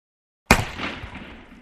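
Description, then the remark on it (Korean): A single sharp, loud gunshot breaks the silence with a sudden crack, followed by a broad, noisy decay that fades over about a second. No voices are heard. “총알, 방아쇠, 초준, 발사.”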